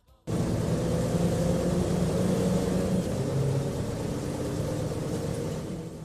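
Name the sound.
bus interior engine rumble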